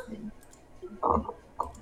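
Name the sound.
computer mouse click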